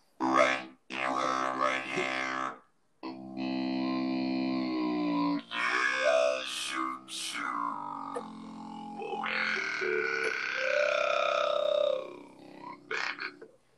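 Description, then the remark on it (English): A voice pitched down through an effects box at the lowest setting the box can go. It comes out as a deep, distorted, croaking growl in long sustained phrases broken by short pauses, with wavering tones and a buzzy, garbled quality. “That is as low as that box could go.”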